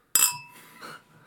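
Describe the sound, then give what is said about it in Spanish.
A bright glass clink rings out as two glasses of wine touch in a toast, its shimmering tone fading quickly, followed by a faint second touch and soft background murmur. “Por Morbius.”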